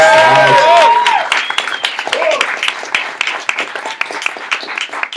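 An audience bursts into applause for a collaborator, with loud whoops and cheers at the start, then keeps clapping in a dense, crackling patter that gradually thins and softens.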